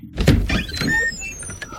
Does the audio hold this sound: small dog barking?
no